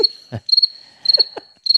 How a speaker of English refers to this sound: this is where the crickets are, and I'm like, eh, what?